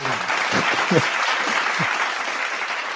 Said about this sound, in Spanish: Un abrazo, un aplauso ahí.